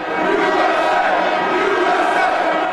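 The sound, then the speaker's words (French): A large crowd of thousands of pro-Trump marchers in Washington chants the slogan "Make America Great Again" in unison, a loud, dense wall of many voices rising and swelling steadily without a break. “Ils sont des milliers à marcher pour, crie-t-il,”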